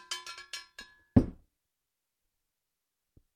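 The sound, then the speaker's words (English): A cowbell clangs rapidly about five times like a dinner bell, each ring short and metallic, followed by one heavier struck hit, then quiet except for a faint thud. “Doesn't it sound like dinner time?”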